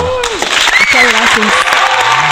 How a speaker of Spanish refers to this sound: Un aplauso para ella.